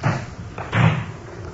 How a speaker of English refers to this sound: Whoever's driving has turned off the lights. A man's getting out. He's opened the rear door.